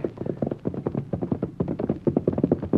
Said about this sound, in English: Golly, that's Dark Star. That's the horse they're all so excited about in town. He's heading this way.